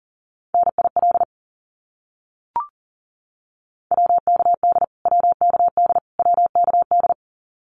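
Fast Morse code at about 40 wpm sending abbreviations, each repeated three times: a single steady mid-pitched tone keyed in quick beeps, one short burst, a pause broken by a faint click, then three rapid groups. No voices.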